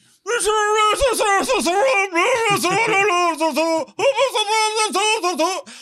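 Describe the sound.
A person vocally mimics the loudspeaker of an election campaign van playing music in the street, belting a loud, nasal, sing-song blare that runs continuously for several seconds with one brief break before resuming.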